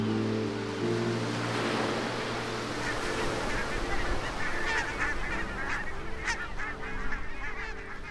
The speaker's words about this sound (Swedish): Oj, nu kommer flyttflåglarna. Jättemånga.